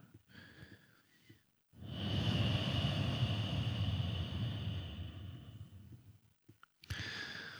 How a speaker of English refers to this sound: Powerful breathing also stimulates the metabolism. You may feel the body warmed up by the movement of the abdominal area. Inhale deeply and make a strong exhalation.